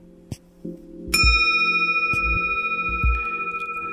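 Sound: meditation bell struck once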